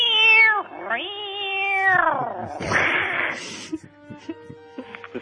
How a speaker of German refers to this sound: Äh, seitdem du deine Musik spielst, spielen die Katzen jetzt total verrückt bei mir in der Wohnung.